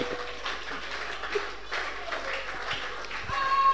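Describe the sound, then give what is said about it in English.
An audience in a church claps hands together, a steady, dense patter of many overlapping claps that swells slightly toward the end, with no clear speech. “clap two hands together.”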